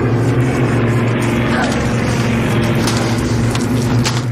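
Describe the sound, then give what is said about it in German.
A loud, steady drone of several propeller airplanes passing overhead above a city, deep engine hum filling the whole moment with a continuous rumble and faint higher whine on top. “weil könnte man denken, okay, ist vielleicht ein bisschen laut, es kriegen die anderen Soldaten mit, aber glücklicherweise ist irgendwie gerade mehrere Flugzeuge.”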